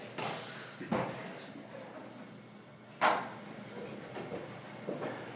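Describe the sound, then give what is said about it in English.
A chair is brought forward by a volunteer, scraping and bumping across a hard floor in a couple of short bursts, with a louder thud partway through and quieter shuffling noises in between. “They got to bring their chair with me. All right, Matt, bring your chair.”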